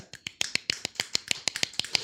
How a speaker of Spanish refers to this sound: Me aplaudo a mí misma, esto queda muy mal.